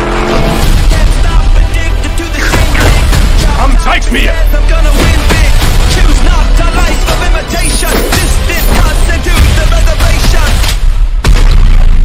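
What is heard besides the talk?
movie explosions and gunfire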